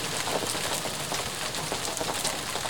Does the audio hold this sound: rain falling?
yes